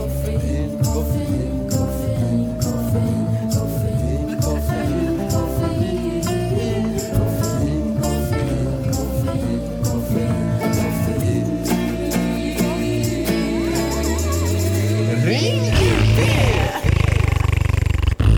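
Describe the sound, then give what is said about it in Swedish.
A short jingle: a loud, busy burst of music plays on its own for about eighteen seconds, with a rising sweep and heavy low rumble building toward a dramatic finish. “Det var vad jag gjorde medan ni fick lyssna på den korta koffeinjingeln.”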